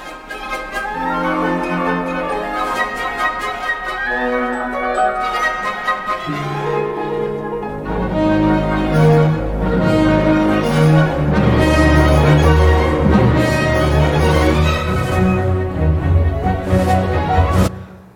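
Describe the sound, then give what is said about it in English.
Dense orchestral music builds in overlapping layers of sustained, ringing tones that evoke pealing bells, growing fuller and louder after the opening bars with a steady, shimmering resonance. “Um, we also get the same kind of layering, and uh, as … was saying, not a literal bell sound, but more the evocation of bell sounds.”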